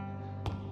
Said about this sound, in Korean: 내 발자국 소리가 울려 퍼졌어.